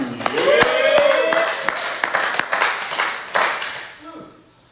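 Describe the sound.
A crowd applauds for about four seconds, sharp scattered claps over a steady wash, with voices and a brief cheer mixed in before the clapping fades out.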